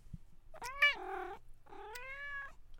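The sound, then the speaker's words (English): A cat named Gray Kitty meows twice, each call long and drawn-out with a whiny, wavering pitch, clear, separated by a brief pause, with no one talking. “Shut up, Gray Kitty. Actually, speak your truth.”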